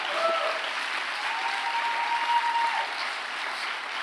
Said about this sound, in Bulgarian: Ако вярваш в това, защо не дадеш на Бога едно дарение на ръкопляскане?